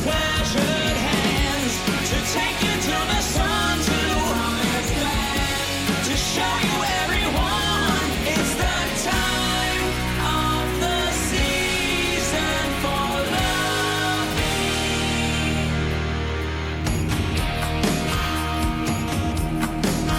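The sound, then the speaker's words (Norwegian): A cover version of a song plays loud and steady throughout, a full band with rich harmonies and a driving rhythm, with no one talking over it. “Og her skal vel jeg komme inn og si sånn Ja, der tok de en bra sang og har gjort den bedre.”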